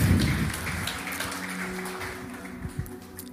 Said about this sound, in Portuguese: Uma salva de palmas para a Rebeca, pessoal.